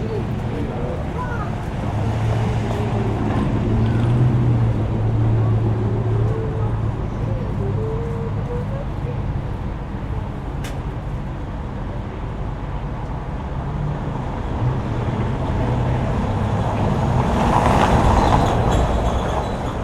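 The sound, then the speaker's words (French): Outdoor city street ambience with a steady, dense low rumble of passing traffic and engine hum, swelling slightly toward the end, with faint indistinct voices in the background. “Écoutons cet extrait intitulé Quai du commerce, enregistré par Isa lors de sa résidence.”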